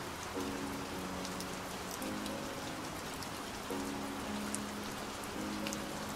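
Steady rain patters and hisses without pause at night, while a soft, slow piano melody plays gently underneath; no one speaks.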